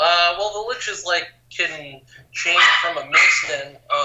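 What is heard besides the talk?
dog barking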